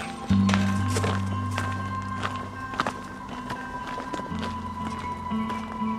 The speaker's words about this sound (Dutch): We lopen nu op een, eh, een voetpaadje tussen eh, van de ene cluster naar de andere cluster, toch?